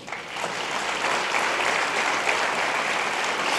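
Sustained applause from an audience, a dense wash of many hands clapping at steady loudness for several seconds, with no talking over it.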